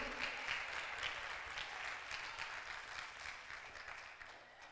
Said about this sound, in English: Come on, clap your hands if you know I'm telling the truth.